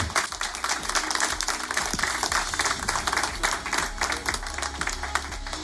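Sustained audience applause, a dense crackle of many hands clapping steadily at moderate loudness for several seconds, with no one speaking over it.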